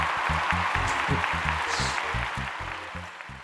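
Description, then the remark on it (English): A loud, continuous wash of crowd cheering and applause over a steady, thumping low beat, sustained without a break for a few seconds. “Is it me or is, is the is the crowd louder than they were on the first?”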